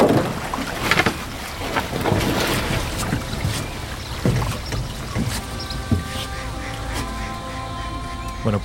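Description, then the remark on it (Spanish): A boat moving on the water as it arrives at a small island: a steady low rumble and splashing wash throughout, with a humming engine tone rising through the second half and occasional knocks and thumps. “Hemos llegado ya a esta pequeña isla, que nadie se caiga.”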